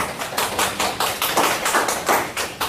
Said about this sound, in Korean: 감사합니다. 감사 박수 한번 할까요?